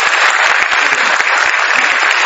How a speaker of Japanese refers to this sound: はい皆さん拍手をお願いいたします